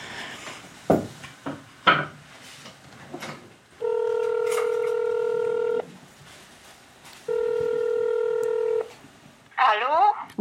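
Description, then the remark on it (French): Telephone sounds as a call is placed to Montréal, Canada: after a few handling clicks and knocks, two long steady electronic tones ring out over a line, each lasting a couple of seconds with a pause between, followed by a brief warbling burst. “Alors peut-être qu'on pourra essayer de l'appeler, non Ah oui, ce serait formidable de pouvoir lui parler.”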